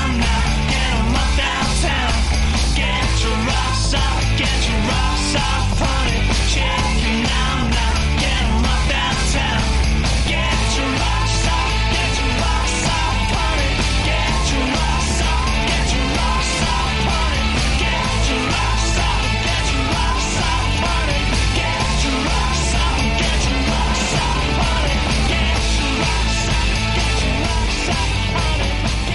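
A loud, dense rock track plays throughout, with driving drums, distorted guitars and a raw, shouted male vocal riding on top at a steady, energetic pace.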